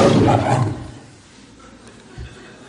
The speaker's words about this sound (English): What was that? It was a lion. Did you know that a lion roars at 114 decibels? To give you some idea, that's 25 times louder than a petrol lawnmower. It's the same as a chainsaw.